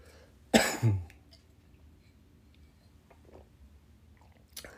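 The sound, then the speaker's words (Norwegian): A person drinks water after losing their voice: a sharp throat-clearing or cough bursts out near the start, followed by quieter small mouth and swallowing noises, then a faint click at the end; no one speaks. “Nå skal jeg ta og drikke litt, for jeg mistet stemmen min helt.”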